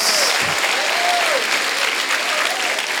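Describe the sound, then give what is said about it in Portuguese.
Loud, steady applause from a crowd clapping for the glory of God after land was paid off, a dense wash of clapping that fills the whole clip without pause, with faint wavering tones and murmurs drifting through it. “Agora você pode aplaudir para a glória de Deus.”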